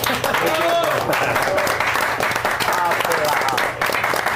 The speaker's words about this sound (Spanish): pues son geniales. ¡Aplausos!